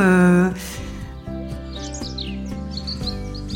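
Scattered bird chirps and short calls flutter above a steady bed of soft, sustained musical tones, the twittering fairly quiet and coming in quick bursts through the second half.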